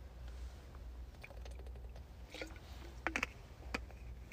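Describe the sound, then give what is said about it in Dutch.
Quiet mouth sounds of someone taking a sip of water and swallowing, with a few soft wet clicks and gulps over low background hiss, and no talking. “Oh, sorry hoor, even slok water nemen weer.”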